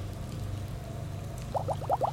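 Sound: bubbling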